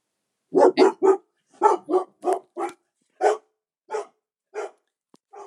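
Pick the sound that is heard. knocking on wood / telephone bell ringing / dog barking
dog barking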